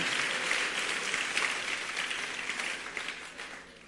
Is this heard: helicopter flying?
no